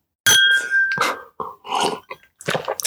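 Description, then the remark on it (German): Wine glasses clink together in a sharp toast, leaving a bright ringing tone that fades over about a second, followed by a few soft handling and sipping noises. “Das schöne Klirren, wir trinken nämlich richtig professionell aus Wein.”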